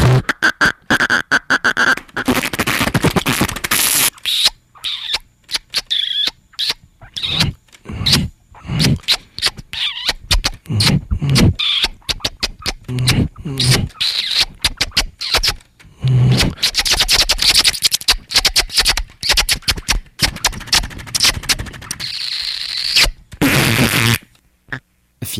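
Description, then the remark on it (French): A rapid stream of wet, buzzing lip vibrations like flatulent raspberries, broken by sharp smacking kiss sounds and squeaky bursts, loud and irregular throughout, with no talking. “finalement, tous ces modes de jeu, de la vibration flatulente au bisou sonore, peuvent se retrouver dans les nouveaux modes de jeu des instruments avant.”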